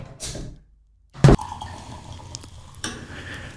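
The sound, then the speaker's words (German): A brief hiss and rustle as a bottle of Löwenzahn Frühlingswein 2022, a dandelion wine, is opened, then one sharp, loud clink of glasses in a toast that leaves a faint ringing tone, followed by soft clattering; no one speaks. “Wenn wir den öffnen und anstoßen?”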